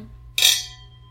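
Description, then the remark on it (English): A single bright clink of wine glasses touching in a toast, fairly loud, with a high ringing tone that fades over half a second against a low background hum. “All right. All right. Cheers. Cheers.”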